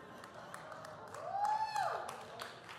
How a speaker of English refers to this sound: why are you guys clapping for my pain? What kind of, oh my goodness.